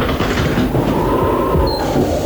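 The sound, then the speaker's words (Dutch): A tram from 1974 in The Hague rumbles steadily and loudly along its rails, with a faint tonal whine and a brief high squeal of wheels near the end, no voices. “Je hoorde de trams uit 1974 en we zeggen hallo Den Haag.”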